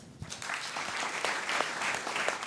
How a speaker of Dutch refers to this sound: Mag ik een warm applaus voor Pieter Klok.